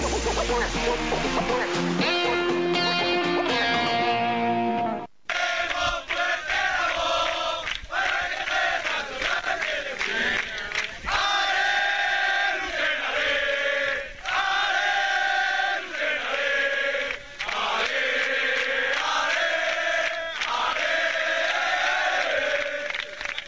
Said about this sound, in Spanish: Eso eran los cánticos que se escuchaban al recibir al equipo a eso de las once y media en la fuente del recinto ferial donde se congregaron eh, más de un centenar de aficionados.